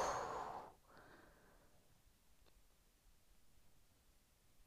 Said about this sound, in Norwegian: Og pust ut. og pust ut.